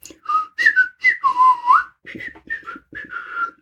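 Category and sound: sound effect, whistling a little tune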